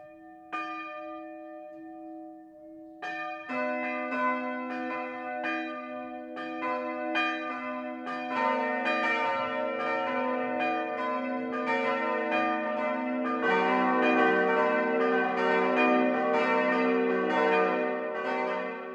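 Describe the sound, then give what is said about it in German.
Church bells of the Catholic parish church St. Bartholomäus in Marktsteinach, Unterfranken (Landkreis Schweinfurt, Germany) ring out in the 12 o'clock noon peal, a single bell tolling at first before several more join in, building to a full, continuous, overlapping clangor with no voices. “Das Mittagsläuten kommt heute aus Marktsteinach in Unterfranken.”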